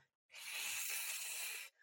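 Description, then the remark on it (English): A person imitates a cat's hiss, a low, cat-like little whistle or hiss, with one steady, breathy hiss lasting over a second, fairly loud, with no talking around it. “like just a, a low kind of cat like little whistle uh, or, or or hiss, sorry.”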